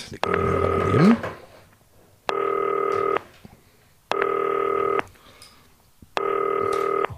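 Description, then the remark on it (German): A FaceTime call to footballer Kevin Möwald ringing: four steady electronic ringtone bursts, each about a second long with a bright layered chord, separated by short pauses, loud and with no talking. “FaceTime-Telefon, ihr kennt das.”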